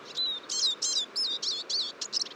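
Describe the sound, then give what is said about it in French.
A chorus of Eurasian siskins and goldfinches gathered near a feeder in early March, twittering together in quick, overlapping bursts of high, thin notes, steady, with no voices present. “Près de la mangeoire, en ce début mars, les tarins des aulnes se rassemblent et forment, avec parfois des chardonnerets, un cœur de fragile.”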